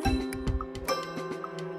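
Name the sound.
clock ticking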